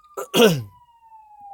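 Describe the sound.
A voice imitates a fire truck siren, holding one steady, slowly falling wailing tone throughout, while a short voiced exclamation or cough bursts over it near the start.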